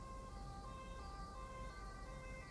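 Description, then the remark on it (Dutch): An approaching ambulance siren with flashing lights sounds, a faint, steady tonal wail layered over a low rumble of road traffic, with no one talking. “Dan komt er een ambulance aan of iets met zwaailichten.”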